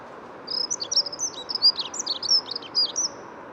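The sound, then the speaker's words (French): A dunnock sings a fast, high-pitched warbling phrase of squeaky, jumbled notes lasting about three seconds, over a steady low rumble of background noise, on a mild day with a very clear sky near the Bois de Vincennes, with many cars around, during the full singing season. “Voilà, je m'approche doucement de l'accenture bouchée.”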